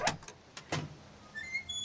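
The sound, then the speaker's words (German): A ship's hatch to the deck creaks open from above: a few dull knocks and thumps, then a thin, high-pitched squeal that wavers and drags on, fairly quiet, with no voices. “Da hört sie auf einmal von oben eine brüllende Männerstimme und die Luke öffnet sich quietschend.”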